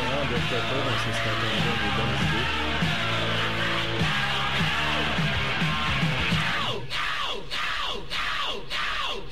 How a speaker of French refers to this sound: Ils se sont dit à la fin, on va mettre un sillon avec juste le bruit du chanteur qui crie No. C'est la chose la plus agressante au monde.